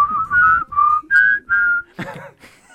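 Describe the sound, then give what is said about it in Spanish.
Someone whistles the Happy Birthday tune: five clear, sustained notes in a steady rhythm, then a brief, rough burst of voices or laughter at the end. “una vuelta en un cumpleaños al que fui, eh, agarró y hizo que en vez de que se lo canten, lo silbaran.”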